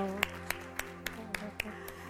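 An audience claps together in a steady, even rhythm, seven sharp beats in about two seconds, as applause for the Lord, over a sustained humming musical tone in the background.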